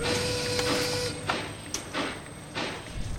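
Mechanical clanking and rhythmic thumps over a steady hiss and hum, like heavy steam-powered industrial machinery running, with a faint whine early on and no voices.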